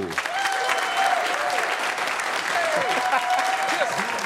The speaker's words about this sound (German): Einen großen Applaus für den wunderbaren, einen der nettesten Menschen in diesem Geschäft, der wunderbare Sertac Mutlu.